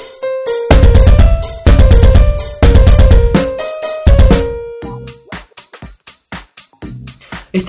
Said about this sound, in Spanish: Esperamos que les haya gustado esta canción que estábamos escuchando.